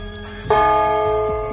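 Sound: gong being struck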